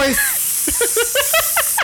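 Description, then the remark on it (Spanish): Someone imitates a snake with a steady hissing breath, mixed with short voiced squeaks and gliding tones over roughly two seconds. “pero entonces te está mirando lujuriosamente. pero es una serpiente.”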